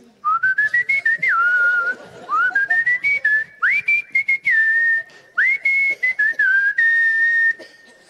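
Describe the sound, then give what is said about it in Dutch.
Someone whistles a rock song melody, a clear tune of sustained notes and quick slides, phrased in several short runs with brief pauses between them and no talking. “Heb je de melodie herkend? Niet? …?”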